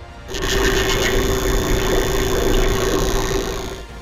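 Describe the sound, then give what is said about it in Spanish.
A small male fish produces a loud, rapid, mechanical-sounding buzz of fast pulses with a steady low hum underneath, louder than other fish that use swim bladder vibrations. It runs continuously for several seconds, unaccompanied by voices. “lo que le ayuda a generar un sonido más fuerte que otros peces, quienes usan las vibraciones de su vejiga natatoria.”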